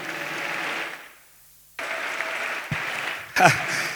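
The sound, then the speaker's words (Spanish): A church audience applauds in praise of the Lord Jesus Christ during a sermon, with dense, steady clapping that fades out briefly, then bursts back in just as strong, with a sharp cheer or whistle rising above the clapping near the end. “Dale un fuerte aplauso al Señor Jesucristo, hermanos.”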